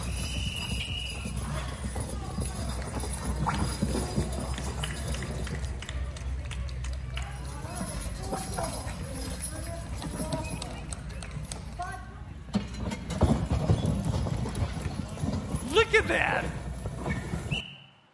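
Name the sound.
horses' hooves clip-clopping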